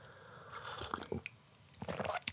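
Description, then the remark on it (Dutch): Quiet sipping of tea: a few soft slurps and wet mouth sounds, followed by a swallow and small smacking noises, with no talking. “Ik neem even een slokje thee.”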